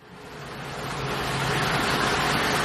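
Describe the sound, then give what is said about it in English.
A steady roar of water gushing into the large tank of a water truck being filled at the city fire department in Cuneo, Italy, at 8 in the morning, about 8,000 litres over 15 minutes; it builds over the first second, then holds as a dense, continuous rush with a faint low hum beneath. “It's 8 o'clock in the morning in Cuneo, and a water truck is being filled up at the city's fire department.”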